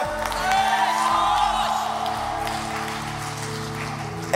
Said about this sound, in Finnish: eka rivi huusi ja kukaan muu ei huutanut. Ainakin siltä se kuulosti.